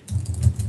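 Rapid, uneven keystrokes clatter on a computer keyboard in a quick burst of typing gibberish, fairly soft, with no voices.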